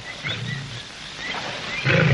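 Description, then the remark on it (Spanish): A lion roars in deep, rumbling bursts as it approaches Tarzan, a moderate growl early on followed by a louder, closer roar at the end, with no talking. “El león se acerca.”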